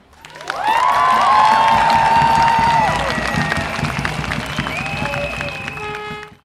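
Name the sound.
crowd applause and cheering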